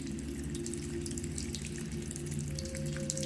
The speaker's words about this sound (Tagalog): Hindi ko kaagad nabuksan ang ilaw dahil natataranta ako sa naririnig kong pagtapon ng tubig sa tangke.